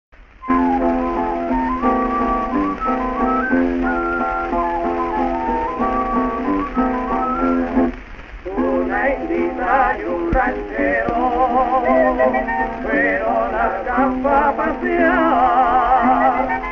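A song plays without any singing: a bright, tinkly instrumental melody with sustained notes, steady and fairly loud, with a brief dip midway before it picks up again with quicker phrases.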